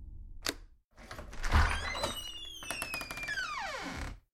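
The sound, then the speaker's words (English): An apartment's front door opens: a sharp latch click, a dull thunk, then a long, squealing hinge creak that bends downward in pitch before fading. No one speaks. “I tried to shake off the disbelief as I headed for the apartment's front door. When I opened it, I found Mr.”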